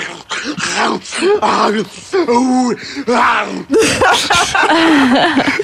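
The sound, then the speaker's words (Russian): A voice imitates the shock of washing under an ice-cold shower with a run of gasping groans and wavering moans, loud, in quick bursts lasting several seconds. “Мытье под холодной водой. С каким звуком мы обычно моемся?”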